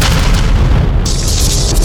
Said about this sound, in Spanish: Lo que acabamos de escuchar es la grabación soviética de la explosión de la bomba del SAR. la bomba de hidrógeno más poderosa que jamás se ha lanzado en la Tierra.